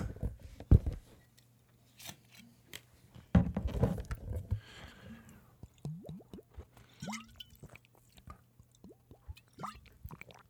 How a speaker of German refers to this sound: Ähm, ja bevor ich jetzt hier anfange, werde ich nochmal einen Schluck Wasser zu mir nehmen, ähm, damit ich hier auch schön im Redefluss sein kann.